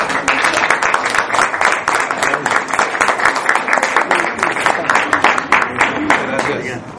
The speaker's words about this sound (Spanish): Quiero que lo recibamos con un gran aplauso